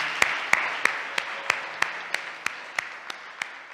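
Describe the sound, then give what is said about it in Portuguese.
An audience applauds Christ as King of Kings and Lord of Lords with a steady wash of clapping, punctuated by sharp, evenly spaced claps roughly three times a second, clapping in rhythm. No one speaks. “E uma vez que estén em seus lugares, por que não das um aplauso a este Rei de Reis e Senhor de Senhores que temos?”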